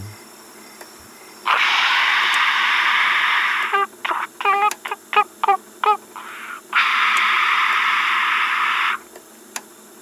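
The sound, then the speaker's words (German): Bursts of harsh static hiss on a tape recording switch on abruptly, broken in the middle by a run of short gurgling, chirpy electronic beeps, then another long stretch of static before the tape ends. No one speaks. “Und dann schlagartig statisches Rauschen gewürzt mit leichten, gurgeligen, piepsigen Klängen.”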